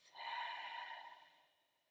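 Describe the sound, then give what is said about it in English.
A single deep, airy breath in a guided breathing exercise, inhaled through the nose and exhaled through the mouth, a drawn-out rush of air that swells quickly and then fades away over about a second and a half, with no talking. “Take a deep inhale in through the nose and a releasing exhale through the mouth.”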